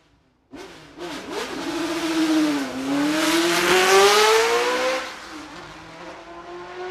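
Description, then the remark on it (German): A 1968 flat-plane Formula 1 V8 racing engine screams in at high revs, its pitch dipping briefly and then climbing steadily as it accelerates, loud and raw with no voices over it. “Das ist so die Mutter aller Formel 1 V8 Motoren. Da das sind auch Soundfiles Auto, drin.”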